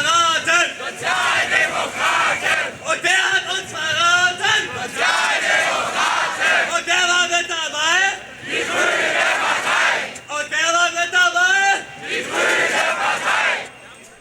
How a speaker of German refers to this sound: In den Protesten wird hörbar, wer in den Augen vieler Demonstrantinnen Schuld am Sozialabbau hat.